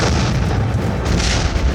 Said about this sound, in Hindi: दुश्मन खेमे में धमाके की आवाज गूंजी और इधर खबर मिली कि पीरू सिंह के ग्रेनेड ने अपना काम कर दिया